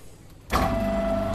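A pug mill clay extruder (boudineuse) in a pottery is switched on and starts abruptly, a quiet hum jumping to a loud, steady mechanical drone with a sustained whining tone running through it. The machine makes regular, de-aired coils of clay.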